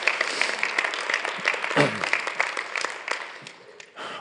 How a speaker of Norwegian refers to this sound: Dere, hvis dere vil, så kan dere få lov til å klappe for at det er et veldig godt resultat.